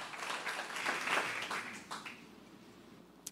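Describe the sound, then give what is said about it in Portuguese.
An audience breaks into applause, a dense wash of many hands clapping that swells briefly, then thins out over a couple of seconds into a few scattered claps and a final sharp tap. “Pode aplaudir mesmo.”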